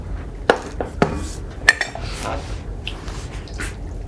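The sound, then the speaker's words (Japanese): A few sharp clinks of a cup and dishware, then tea being poured into a cup with a soft, splashy trickle, fairly quiet, with no talking. “うん、飲みたいなトポトポトポとか音入るから”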